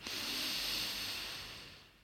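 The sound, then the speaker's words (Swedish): A single long, deep breath drawn in through the nose, filling the whole belly, a steady airy hiss that swells quickly and then slowly tapers over about two seconds, fairly quiet, with no talking. “Och fyller sedan upp hela magen med ett djupt andetag. Andas in.”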